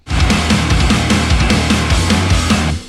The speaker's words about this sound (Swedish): finns det faktiskt en låt på Spotify som heter …. Som även är låten vi snott mellanspelet från.